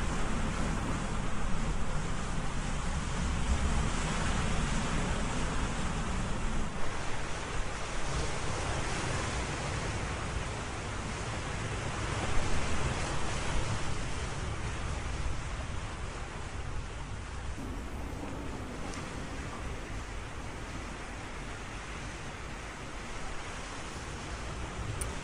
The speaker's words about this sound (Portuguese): Senta a brisa do mar, a areia que você pode tocar com as suas mãos, a água molhando o seu corpo. Escute o som das ondas.